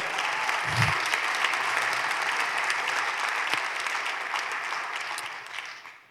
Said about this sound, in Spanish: va a aplaudir, ayúdame por favor.